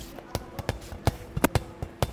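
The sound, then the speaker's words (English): Children play dodgeball backstage in Italy just before a show's curtain goes up: a ball bounces and smacks repeatedly in an irregular, quick rhythm, with sharp echoing thuds while faint voices murmur in the background. “That's the sound of children playing dodgeball backstage right before the curtain came up.”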